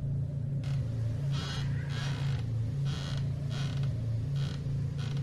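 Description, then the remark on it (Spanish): A rocking chair creaks in a slow, steady rhythm in the early hours before dawn, each soft groan repeating about once a second over a low, constant hum, somewhat distant and with no voices. “me despertó a lo lejos el sonido de aquel mueble.”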